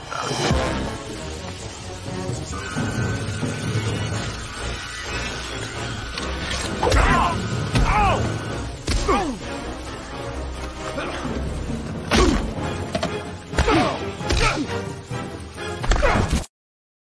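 Sharp punches and cracking whip strikes burst out at irregular moments over a dense, noisy film soundtrack, loud, with a cluster of hits toward the end.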